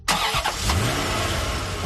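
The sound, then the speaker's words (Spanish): A combustion car engine cranks and catches with a couple of sharp bursts, then settles into a steady, loud running rumble, with no voices. “Efectivamente, los coches de combustión con diésel o con gasolina.”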